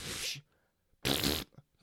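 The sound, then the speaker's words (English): Two loud, buzzy blasts of a voice imitating a fart, the first around half a second long, a short gap, then a longer rasping burst, each trailing off into quiet. “Farted on the guitar.”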